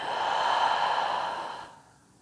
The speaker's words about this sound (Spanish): Inhala por tu nariz. Contenemos la respiración. y lento por tu boca exhala.